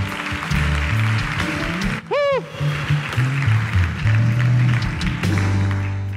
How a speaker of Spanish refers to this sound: Dele un aplauso a Dios el que lo crea.